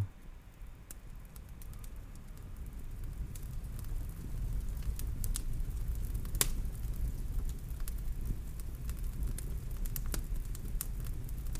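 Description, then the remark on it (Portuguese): A fire crackles steadily in a fireplace, a low continuous rumble broken by irregular sharp pops and snaps, moderately loud, with no voices. “libertamos a mesma as emoções negativas libertamos las na lareira, na fogueira.”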